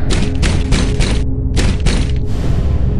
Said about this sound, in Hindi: सब कोठरी के दरवाजे के पास खड़े चारों तरफ देख रहे थे जब ड्राइवर ने हिम्मत करके कोठरी के दरवाजे को खटखटाया